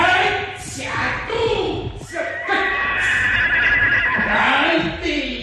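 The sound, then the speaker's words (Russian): A horse whinnies in a long, wavering, high-pitched call, loud, with a speaking voice blended underneath and scuffling movement throughout as a man with a halter chases it, approaching from behind rather than the front. “принес оброть стал гоняться за лошадью, пугая ее и подходя сзади, а не спереди.”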